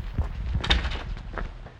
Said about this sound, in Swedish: Men innan journalisten hinner fram till Leif stänger han dörren om sig.